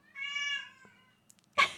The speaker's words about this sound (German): Und das ist unser Kater. Ja. Den werdet ihr wahrscheinlich noch ein wenig öfters hören.